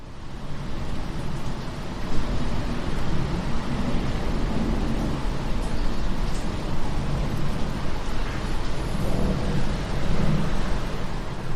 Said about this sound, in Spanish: Escuchamos el viento del desierto.